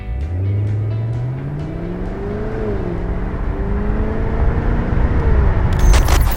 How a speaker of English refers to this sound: I'm in Canada, it's early morning, the birds are singing, and the car that we're having a drive of at the moment is the second generation of the Cadillac CTS-V.